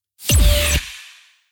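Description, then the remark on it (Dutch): A short, loud electronic radio jingle with deep bass and sweeping tones, played on its own without the news intro that normally overlaps it, that cuts off abruptly on a single held note, leaving a brief fading reverb tail. No one speaks over it. “Hij wordt altijd overlapt door de nieuwsintro. Ja. En gisteren hoorde ik hem los.”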